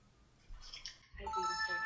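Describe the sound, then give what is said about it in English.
A phone rings on an outgoing call, a brief chirp followed by a steady, bright ringing tone that starts about a second in and continues, clear. “if I need you like anytime, do you feel like you would always answer the phone for me?”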